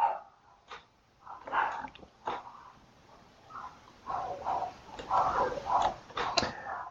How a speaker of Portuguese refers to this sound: Isso é uma coisa perturbadora, uma coisa estranha, uma coisa é, e os cachorros estão gritando. Vamos só esperar um pouco.